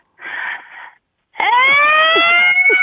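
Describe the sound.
After a short breathy noise and a pause, a voice launches into a loud, sustained siren imitation, a rising harmonic wail that holds steady with slight wavering, mimicking an American ambulance.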